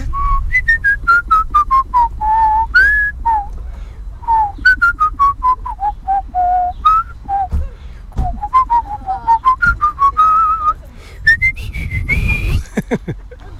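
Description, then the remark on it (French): A person in Rochefort whistles a lively song melody, the clear tones rising and falling in quick, bouncy phrases with short breaths between them, fairly loud with no talking. “Ben, qu'est-ce que je siffle bah, dans la chanson”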